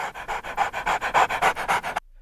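A dog panting quickly and steadily, about ten rapid breathy huffs in an even rhythm, fairly loud, then it stops abruptly into near silence. No one speaks.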